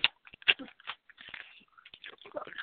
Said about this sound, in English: So you can actually hear me chewing, and it is super spicy